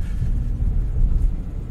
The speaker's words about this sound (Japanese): M3 でやりたいんだけど、M3 はちょっと、いろいろな問題がありますね。そのロードノイズ問題が一番すごいですね。